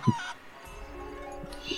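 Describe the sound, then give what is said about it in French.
A chicken gives a short, sharp cluck right at the start, followed by a few softer, scattered clucking sounds fading off over a quiet background. “Pourquoi il y a un petit coup de poule euh, à la fin”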